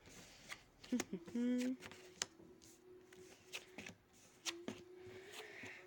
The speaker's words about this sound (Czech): Tak karty už mám před sebou, už to otáčím.